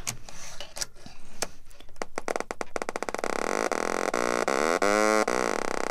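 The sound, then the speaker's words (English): A littleBits electronic oscillator, snapped to a blue power bit and a speaker, starts as a stream of sharp clicks that speed up and merge into a loud, buzzy tone, its pitch wavering and sweeping up and down as the oscillator is tuned. “So what I have is a power bit, which is blue, um, and I'm going to snap it into an oscillator, which is uh, generating the sound wave, and a speaker. And now I'm tuning the oscillator.”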